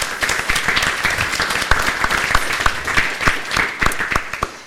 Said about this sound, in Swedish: Eh, jag vill ha en applåd här också, för värmen.